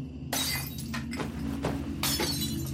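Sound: window glass shattering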